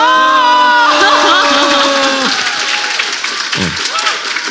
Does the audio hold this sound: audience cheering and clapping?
yes